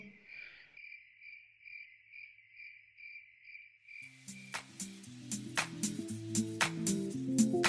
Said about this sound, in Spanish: Me vas a poner grillitos.